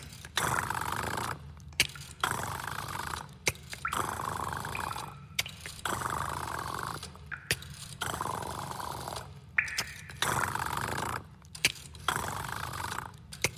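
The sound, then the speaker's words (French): A voice imitates dialing a number on a rotary phone dial: about seven raspy, whirring bursts, each lasting a second or two, separated by brief pauses. It is steady and fairly loud, with no other talking. “À cette époque, les téléphones avaient encore des cadrans.”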